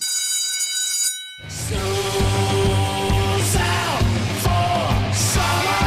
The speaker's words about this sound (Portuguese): Ô, para de gritar aí, meu! Tô gravando! Mãe, fala para as crianças parar de gritar aí, eu tô gravando.